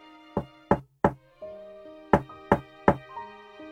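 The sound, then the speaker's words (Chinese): Two sets of three sharp, solid knocks on a door, evenly spaced, with a pause between the groups and soft sustained musical tones humming underneath. A postman is knocking on the door of a room at an inn. “这样想着，敲门的声音也响了起来。”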